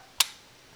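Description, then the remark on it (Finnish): A single sharp camera shutter release click on a camera with preset settings, crisp, with a quick mechanical snap that fades fast into quiet; the shutter speed is closer to 1/60 than 1/125 of a second. “Ja tämä tosiaan, niin kuin sanoit, niin, niin tota, tässä on nämä säädöt valmiiksi tehty, eli laukaisu kuulostaa tältä”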